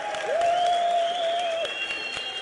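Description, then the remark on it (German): Citizens at Munich train station applaud newly arriving asylum seekers in August 2015: dense clapping fills the whole stretch at a consistent loud level, with a sustained whistle-like tone gliding in and holding above the clatter. “Am Münchner Bahnhof stehen engagierte Bürger und beklatschen die Neuankömmlinge.”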